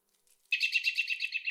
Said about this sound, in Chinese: 咦，那只呼唤我们的知更鸟在哪里？ 鸟啼声。来自一片茂密的冬青树丛，上面点缀着猩红发亮的浆果。